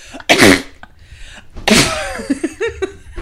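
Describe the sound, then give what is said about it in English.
A voice imitates a sneeze twice, with loud explosive bursts around a second apart, followed by a sputtering, wet raspberry-like noise mimicking a fart. “You've been sneezing and farting at the same time, or oh you've been cough farting.”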